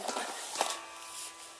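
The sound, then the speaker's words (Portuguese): A cat scrambles and scuffles on a bed, nearly falling off, with a couple of quick scratchy, thumping bursts of movement and a soft background hiss throughout. No one speaks. “E isso é meu gato tentando cair da cama, entendeu?”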